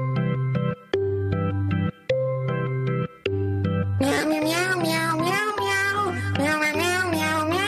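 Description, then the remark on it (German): A bouncy tune built from sampled cat meows over a steady beat; after a few seconds, higher, wavering meows pile on in a dense, loud chorus that carries the melody to the end. “Ja, und natürlich wollen wir uns da an unserem Jubeltag nicht lumpen lassen und beginnen unser musikalisches Potpourri mit einem echten musikalischen Hammer aus der Sparte Katzenmusik.”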